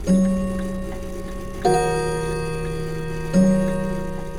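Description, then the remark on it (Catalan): An old clock chimes three slow, resonant strikes about 1.7 seconds apart, each ringing tone lingering and decaying into the next, clear with no voices. “Amb tot, no el vaig poder distingir bé perquè la vella treballava delerosament i just en aquell moment el vell rellotge es va posar a tocar.”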